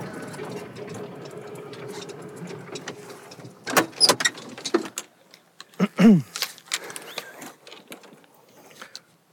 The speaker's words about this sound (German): Und im Moment wird das Grün auch noch von den Wassersprengern beschützt